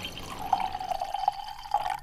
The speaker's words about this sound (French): ce vin est prêt pour la mise demain. Tiens, vous tirez un verre pour que vous puissiez déguster. Ça sent bon, hein